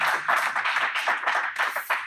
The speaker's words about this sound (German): Jetzt merkt man auch, dass wir wirklich live sind. Wir haben also sogar Applaus in den News. Also für, für euch jetzt an den Endgeräten, es sind in etwa so viele Menschen hier, wie RB Leipzig Mitglieder hat.